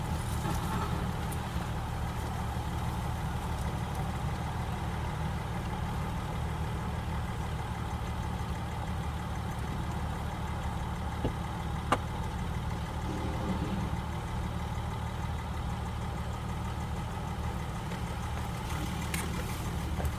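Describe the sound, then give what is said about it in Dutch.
A car engine idles steadily, parked on the pavement, a low, even mechanical rumble that holds unchanged for the whole stretch, with a faint brief click partway through and no voices. “Ja joh, die motor is hier fantastisch. Zo mechanisch.”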